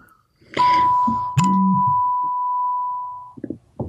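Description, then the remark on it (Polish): A phone message notification sounds as one long, steady electronic tone held for about three seconds, with a brief low buzz and some handling clatter near its start, fairly loud. “to jest wiadomość od ciebie, która przyszła z nieco większym opóźnieniem niż zwykle.”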